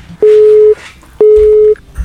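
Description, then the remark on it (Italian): A telephone line tone sounds two steady, mid-pitched electronic beeps, each about half a second long with a short pause between, clear, with no one picking up. “Eh, mi sa che non risponde mica, sai.”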